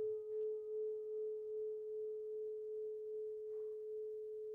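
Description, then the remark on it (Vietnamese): A mindfulness bell's long resonant hum holds one steady, pure tone with faint overtones, sustaining evenly and fading only slightly over several seconds at a soft, quiet level. “mỗi khi nghe tiếng chuông ngừng vàng tôi tự nhắc mình hãy thả lỏng thư giãn và cho qua đi”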